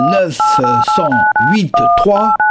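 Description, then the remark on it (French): A quick run of about seven loud keypad beeps, each a steady two-tone pitch like digits punched in to enter a date, with a voice murmuring underneath throughout. “Allez, je cale la DeLorean sur 1908-3”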